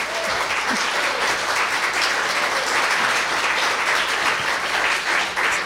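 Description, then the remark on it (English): A crowd applauds musicians at the start of their live set, with dense, continuous clapping that stays loud and even throughout, with no pauses or talking. “Let's get let's hear it again for these guys.”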